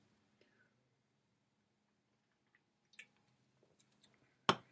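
Someone quietly sips a drink of Jack Daniels whiskey, with soft wet mouth and swallowing sounds, then a single sharp tap at the end like a glass being set down.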